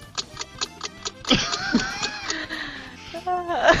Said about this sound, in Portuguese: Tic-tac, tic-tac, tic-tac, tic-tac.